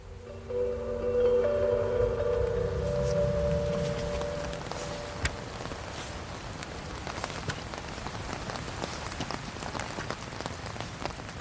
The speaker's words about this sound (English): We've been to clambering uphill on this very, very rainy day in Bergen. In fact, it was rainy before, but now it's coming down thick in swirls. You can't and get away. Yeah, and, and wind. wind. You can't really get away from it.